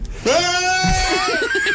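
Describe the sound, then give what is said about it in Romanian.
A voice imitates a goat, letting out one long, loud, nasal bleat that wavers and trembles near the end, with no other sounds around it. “Ei bine, uite, am făcut-o cu capre”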